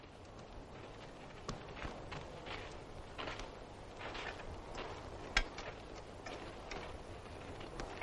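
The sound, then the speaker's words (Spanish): Loose horses wandering through a forest on a battlefield, their hooves clopping in an irregular, uneven rhythm of soft thuds over a steady rustling background, with one sharper knock standing out. “Los caballos deambulan sueltos por el bosque.”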